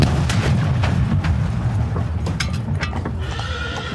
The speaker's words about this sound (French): Ils s'y rendent en carrosse, mais soudain, dans le quartier du Palais Royal, retentit une gigantesque explosion.